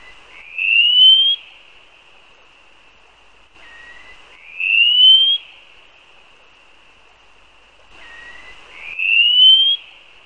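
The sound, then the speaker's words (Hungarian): A wallcreeper calls three times, each a thin, high whistle that slides upward, preceded by a shorter, lower note. The calls come a few seconds apart, clear and fairly loud, with no other sounds. “Nagyon érdekes a hangja is. Messze hangzó hangja van, ugye nem nagyon lehet belőni ott a végtelen sziklafalakon, és ki szoktuk használni, hogy a telelési idő alatt is reagál a hangra.”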